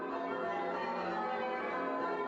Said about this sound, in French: Les cloches que vous entendez sont celles de la cathédrale Holy Trinity dans le Vieux-Québec. Leur carillon vous accompagnera pendant que vous vous dirigerez vers la première pierre tombale.